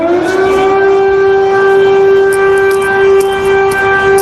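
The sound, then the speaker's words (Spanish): A loud, sustained air raid siren wails steadily with a rising onset, its harmonic tone holding constant throughout, with faint background noise and occasional clicks but no voices. “La situación es muy extraña, no, no es una alarma que haya sonado antes y la gente yo creo que está todavía en estado de negación.”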